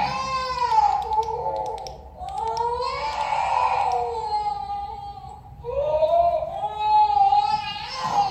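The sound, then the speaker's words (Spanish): A small child cries in three long, drawn-out wails with brief breaths between them, loud, with no talking over it, heard inside an abandoned sanatorium. “ESCUCHAMOS UN LLANTO”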